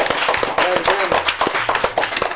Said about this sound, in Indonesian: Tepuk tangan dong guys.